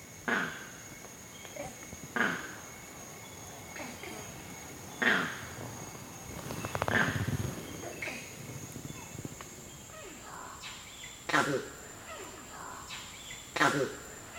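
A male's harsh krak-oo alarm calls, given for various dangers coming from the ground, ring out about six times at irregular intervals, loud, over a steady high insect drone in a forest.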